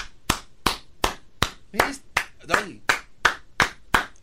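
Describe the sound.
Steady hand clapping, about eleven sharp claps at an even pace, with a brief burst of overlapping voices partway through.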